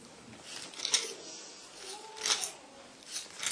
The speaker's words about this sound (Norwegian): Og så blar vi til kapittel 18.